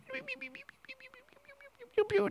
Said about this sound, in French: fini calmement, bien sûr, avec les petits oiseaux